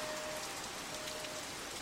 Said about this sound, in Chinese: 救护车鸣笛在身边响起，警示灯也飘进雨里。我撑伞，快步走过这唯美凄惨的街景